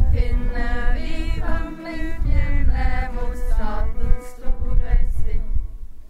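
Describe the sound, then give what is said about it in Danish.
A protest song of activists at a disputed site between Vævring and Ingebøfjellet in western Norway, played on guitar and violin, with sung melodic lines over a steady low strumming, continuous and fairly loud throughout. “Kampen står på endnu, og det du hører her er en kampsang fra de mange aktivister, der er mødt op på den omstridte plads mellem Vævring og Ingebøfjellet i det vestlige Norge.”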